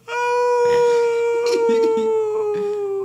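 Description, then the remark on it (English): On a full moon night, a person imitates a long, sustained werewolf howl, a steady drawn-out tone held for about three seconds, loud, with a slightly mournful wavering quality. “your your werewolf sounds really sad.”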